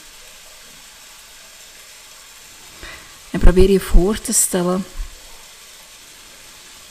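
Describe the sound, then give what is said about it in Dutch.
A steady, soft hiss of rain fills the background throughout, even and unbroken, while a person speaks briefly in a calm voice near the middle. “Je hoort de regen op de achtergrond.”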